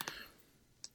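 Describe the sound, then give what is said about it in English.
Two crisp computer mouse clicks, one near the start and another near the end, each short and sharp against a quiet, hushed background, made while clicking to open a Google Doc. “So if you're clicking right now on the podcast, that very professional noise you hear is me clicking to my Google Doc, so I can go to it.”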